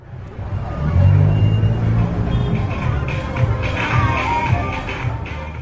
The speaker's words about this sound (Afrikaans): Opgewonde jong mans in 'n swart kar speel harde musiek. Hulle glimlag en gluur die polisieman aan terwyl hulle verby hom ry.